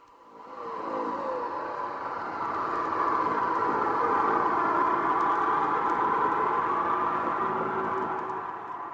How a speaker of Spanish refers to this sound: Carol condujo el coche lentamente hasta llegar a la calle Center. Allí se detuvo y bajó del coche.